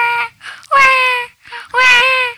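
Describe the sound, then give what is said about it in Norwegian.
Someone imitates a crying baby: three loud wailing bursts, the last two long and strained, rising and falling with short gasping pauses between them. “Det der er lyden av en baby som skriker.”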